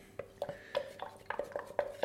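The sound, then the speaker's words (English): A utensil scrapes and taps stuck food off the bottom of a container in a quick, irregular series of about eight strokes, each leaving a faint metallic ring. No one speaks. “remove that from the bottom of this container.”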